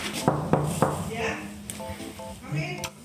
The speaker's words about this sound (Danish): Og her står jeg så. En tidlig tirsdag morgen og banker på en dør ind til stue 25.